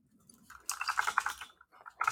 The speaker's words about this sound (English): Yeah, you fucking loud ass nerdy keyboard.